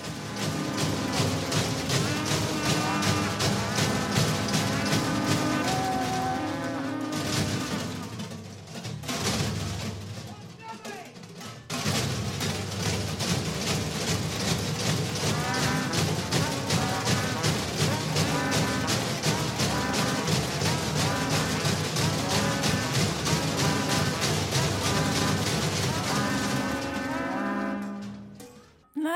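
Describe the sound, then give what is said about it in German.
Harsh, loud noise music with screamed vocals, a dense wall of distorted sound that pounds on almost nonstop, broken only by a brief drop partway through. “Nein, das ist heute einfach richtige Krachmusik und genau um sowas geht es heute.”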